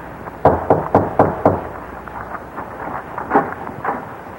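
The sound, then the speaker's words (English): Five firm knocks on the wooden door of a house in quick, even succession, followed by a few fainter, scattered taps and some muffled shuffling. “Well, let us knock.”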